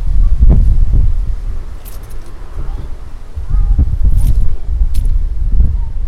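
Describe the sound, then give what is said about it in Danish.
Wind buffets the microphone in uneven gusts, a heavy low rumble that surges and drops throughout, with a few faint clicks and jingles on top. “En masse blæst og tre stakke med bøger.”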